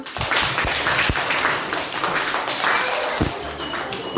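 A burst of applause from a group, dense overlapping claps with a few sharper, louder claps standing out, sustained at a steady level throughout.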